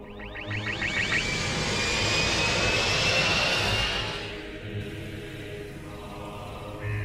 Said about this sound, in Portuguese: A nave atravessou os galhos das árvores e acabou pousando próximo a um pântano.